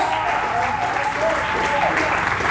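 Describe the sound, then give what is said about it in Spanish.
An audience applauds loudly and steadily for God during a church service, a dense wash of many hands clapping at once, with scattered voices and a faint tonal line underneath. “¿Alguien puede aplaudir de fuerte a nuestro Dios?”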